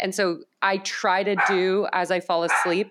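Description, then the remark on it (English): A dog barks a few times in short bursts, cutting in and out while a woman keeps talking over it. “excuse my dog”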